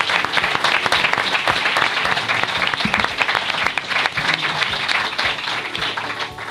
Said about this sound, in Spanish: Se merecen un aplauso. Muchos aplausos para ellos.